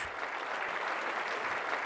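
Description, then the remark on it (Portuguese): An audience breaks into sustained applause after a remark by Malcolm X during his speech, a dense, steady wash of many hands clapping together, with no voices rising above it. “A plateia explodiu em aplausos.”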